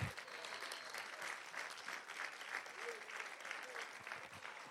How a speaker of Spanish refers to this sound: Alguien déle un aplauso fuerte al Señor.